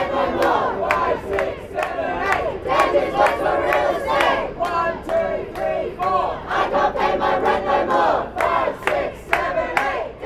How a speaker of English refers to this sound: Now we hear from lively chants from the protests